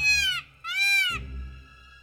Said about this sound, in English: Then at dawning, a startled bird suddenly screamed.